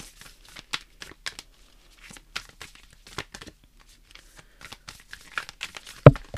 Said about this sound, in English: and with that let's pull a card let's see